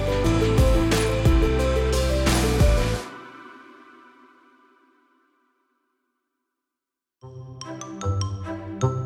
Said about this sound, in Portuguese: Não, isso aí é a vinheta.